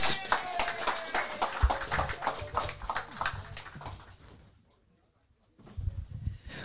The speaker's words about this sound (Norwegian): Applaus!